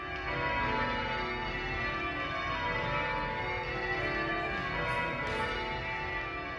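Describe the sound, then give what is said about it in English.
A dense, continuous wash of church bells, rung at noon by a society of bell ringers at the National Cathedral in Washington, D.C., rings out together, overlapping peals and sustained harmonic tones filling the space steadily and loudly with no speech. “In Washington, D.C., one of the stops was at noon at the National Cathedral, where a society of bell ringers was performing they ring the bells every Sunday, but one of them came down to speak with me while they were still ringing”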